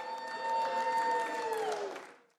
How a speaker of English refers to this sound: Cheers do you hear that? Of course the eyes have it.